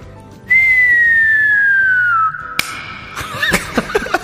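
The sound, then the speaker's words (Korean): A voice mimics fireworks bursting in the sky, as if heard from a subway train crossing the Han River railway bridge: a long, steady whistle slides downward for about two seconds, then a sharp pop and a few crackling bursts follow, loud. “자, 지금 지하철 타고 한강 철교를 건너고 있는데 때마침 하늘에서 불꽃이 팡팡 터집니다. 눈앞이 반짝반짝하면서 소리가 들려요.”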